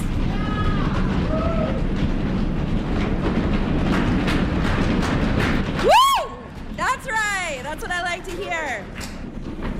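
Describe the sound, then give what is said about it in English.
An audience in Maine stomps its feet to show it will stand up for voting rights, in a loud, continuous low rumble for several seconds. The stomping then breaks off into scattered cheers and high whoops from the audience. “Stomp your feet if you're a Mainer who will stand up for voting rights.”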